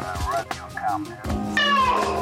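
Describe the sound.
A person imitates a cat, letting out a few wavering meows, the last one loud and drawn out, with no other talk around them.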